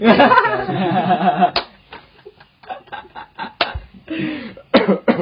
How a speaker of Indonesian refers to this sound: sorry ini Bung Iqbal saya batuk-batuk